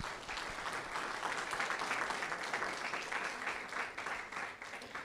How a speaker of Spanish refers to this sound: De un aplauso al Señor esta noche.